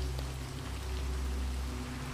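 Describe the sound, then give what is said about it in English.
Steady rain falls in a continuous, even hiss with a soft low rumble beneath it, unbroken and fairly quiet throughout, with no voices present. “The world beyond the manor fades away, and you're left with the faint sounds of your breath and the rain's constant serenade.”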